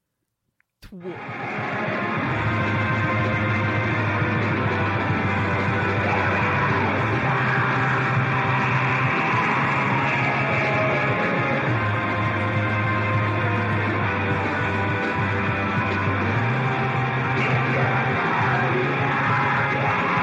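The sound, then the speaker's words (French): After a brief silence, the third track from a 2021 album starts: a loud, dense wall of sound with shouted, yelling vocals and a sustained low bass note that shifts every few seconds. “Et on va aller écouter la 3.”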